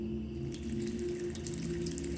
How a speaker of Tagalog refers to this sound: Nasabi ko sa sarili amang patuloy pa rin sa pagsalok ng tubig sa batya.